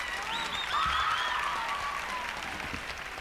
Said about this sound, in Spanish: Vamos a la gente sigue aplaudiendo, que aplaude la gente.